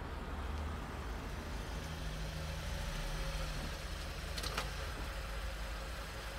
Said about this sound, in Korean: 차는 좁디 좁은 산길을 달려 낡은 폐가 앞에 멈춰섰다.